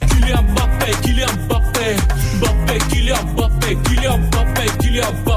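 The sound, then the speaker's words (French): A loud Bulgarian rap song about a footballer plays throughout, with punchy, steady drum hits, a deep booming bassline and layered melodic backing filling the mix without a break. “Ça, c'est le son du moment, hein. rap bulgare. C'est du rap bulgare.”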